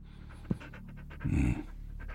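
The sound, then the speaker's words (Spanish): A dog, Titán, pants rapidly in quick, breathy bursts, with one louder, heavier huff midway through and no voices. “es un hombre que habla con su perro”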